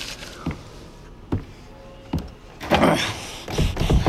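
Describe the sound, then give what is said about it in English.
A door lock engages with three sharp, evenly spaced mechanical clunks, followed by a louder whirring rattle that runs to the end. No one speaks. “Hey, what is going on here? You locked the door on me.”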